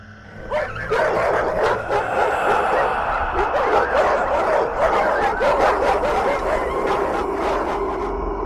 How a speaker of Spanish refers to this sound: Eran como siete perros y todos estaban alterados ladrando hacia mí. El simple hecho de habérmelos encontrado me hizo sentir más protegido así que corrí hasta ellos. Al acercarme, vi que no me ladraban a mí, sino a ese ente que me estaba siguiendo.